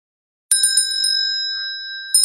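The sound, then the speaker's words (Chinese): A shrill metallic bell rings out in a quick burst of strikes, its bright, piercing tone hanging on steadily before another burst of rings at the end. No voices. “会议在一声刺耳的铃声中开始了。”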